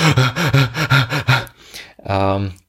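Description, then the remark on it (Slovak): Someone demonstrates rapid, panicked breathing into a microphone in front of people, about seven quick voiced pants in a row, loud, followed by a softer breath and a long drawn-out vocal exhale. “A to znamená, keď ste v panike, e, tak e, rýchlo dýchate.”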